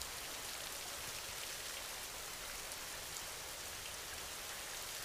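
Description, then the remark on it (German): Steady rainfall with countless raindrops pattering densely and evenly, a soft continuous hiss with fine crackling texture, fairly quiet, no voices. “Und nimm den Rhythmus der Regentropfen wahr.”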